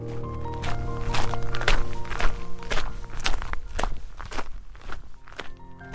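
Footsteps of two people walking to a train station to pick up a suitcase, a steady series of crisp, slightly crunchy steps at an even pace over a low continuous background hum, with no talking.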